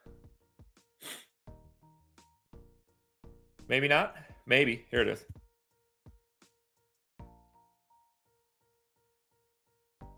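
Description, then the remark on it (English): A loud sneeze comes in two quick forceful bursts, with a man briefly speaking just before it and quiet breathing and clicks afterward. “I got to sneeze.”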